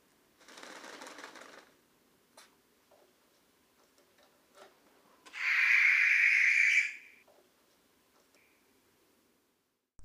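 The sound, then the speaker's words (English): A barn owl gives two harsh, hissing screeches: a breathy one first, then a louder, rasping scream lasting over a second, with faint clicks and rustles between them. “owl is well known for its hunting screeches and high pitched calls, often referred to as the screech owl in some countries.”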